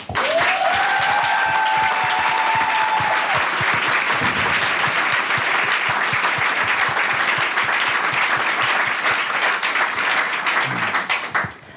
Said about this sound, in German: Der kriegt auch nochmal einen Applaus.